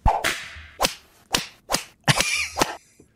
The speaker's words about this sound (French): Le fouette, sacramouille, le fouet! Le fouette. Sortez le fouette. On sort le fouette.